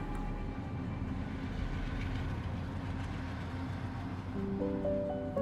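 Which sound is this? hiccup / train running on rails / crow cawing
train running on rails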